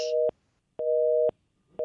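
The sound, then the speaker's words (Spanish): A telephone busy signal pulses in steady on-off beeps, a dual steady tone repeating about every second, clear with no voices over it, after a caller's phone call to a radio program dropped. “Se cayó, salió el hombre.”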